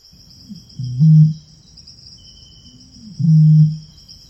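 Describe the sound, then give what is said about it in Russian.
Two deep, hollow booms of a male Eurasian bittern calling from distant bushes, each preceded by a soft intake note, spaced a couple of seconds apart over a steady high insect trill. “Это поет самец большой выпи.”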